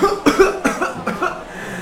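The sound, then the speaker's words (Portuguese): A short run of three or four harsh coughs in quick succession, fairly loud, with no talking around them. “Ih, tá tossindo, é, bateu.”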